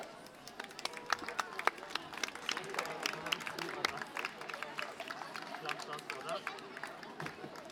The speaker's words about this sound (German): Ah, Applaus